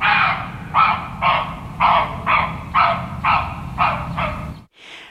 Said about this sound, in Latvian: Sāksim ar stirnu buka balsi.